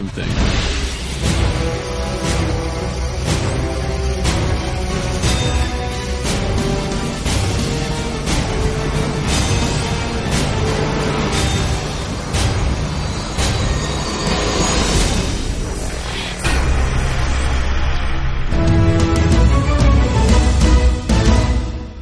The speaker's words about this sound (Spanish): El sonido que se escucha son gritos de alegría.